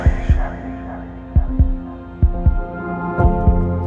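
A deep, thumping heartbeat in steady lub-dub pairs, four double beats in a slow rhythm, loud over a low sustained hum with no voices.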